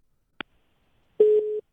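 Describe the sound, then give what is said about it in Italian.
A sharp click, then the busy tone of a caller's dropped phone line on a call-in program: one short, steady mid-pitched electronic beep that steps down slightly in loudness partway through. No voices. “Questa è caduta”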